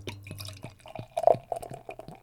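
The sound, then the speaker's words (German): Beer glugs into a glass in a rapid, uneven run of gurgling liquid bursts that rise slightly in pitch as the pour continues, with no talking. “Ja, so, dann gieße ich mal in, in, ein Glas, weil ich trinke ja Bier grundsätzlich aus einem Glas.”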